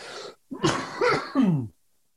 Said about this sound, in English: a good day, I won't be coughing like this. on a good day, you know, I could walk by you on the street or I could hang out with you for the whole day and you might not even realize I have CF unless you catch me taking my pills.